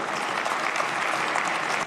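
Applause for health workers fills the Turkish parliament chamber: many hands clapping densely and steadily at moderate loudness for about two seconds, with no voices standing out, then tapering slightly at the end.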